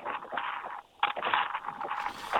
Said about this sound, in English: One, actually, let's let's give Elliotte a buzz back. It's kind of windy where he is right now as we're doing their uh, the the walk with Elliotte at this point.